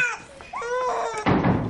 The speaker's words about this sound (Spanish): Eddie, los bebés lloran, es su forma de hablar.